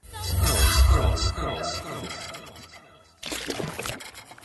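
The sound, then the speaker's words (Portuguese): Water pours steadily into a glass, a continuous gurgling trickle that gradually softens, falls briefly quiet, then returns in a second, brighter splashing burst. “Depois de todos beberem água com açúcar, voltaram.”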